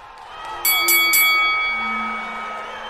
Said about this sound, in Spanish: Sonó la campana, vámonos al séptimo, que es el de la buena suerte para algunos, el de los dados en Las Vegas, aunque este pleito es en Anaheim, en la tierra de Mickey Mouse.